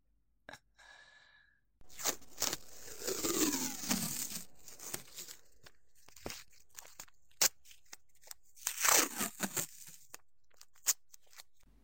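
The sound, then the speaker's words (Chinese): Adhesive tape is pulled off the roll in two long, sticky, screeching rips, with crinkly handling, short crackles and pops between them as it is wrapped to bind someone's hands. No one speaks. “首先，我要先用胶带把你的手绑起来。”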